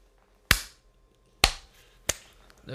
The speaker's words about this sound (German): Wer war denn nochmal klatschen? Nochmal? Klatschen.